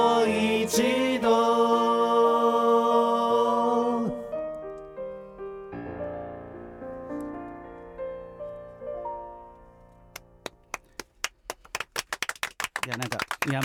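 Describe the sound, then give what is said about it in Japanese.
A sung melody over instruments fades out, then a few people begin clapping: sharp, scattered handclaps that start sparse and grow quicker and denser toward the end. “申し訳ない本当申し訳ないあの台本に拍手って書いてあるんですよ”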